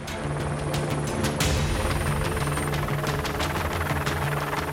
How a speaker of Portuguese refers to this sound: O piloto precisa ser rápido. São dois desafios: encher o cesto de água antes do fogo se alastrar e manter o helicóptero no ar, já que o calor pode tirar a sustentação e derrubar a aeronave.